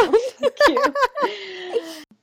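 An eight-month-old baby giggles in quick, bright bursts, then lets out a longer drawn-out babbling coo, fairly loud, with no adult voices over it.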